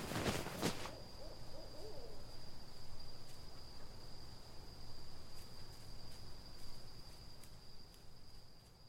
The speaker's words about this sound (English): Here there was only insects and wind, and every so often a hoot of a distant owl.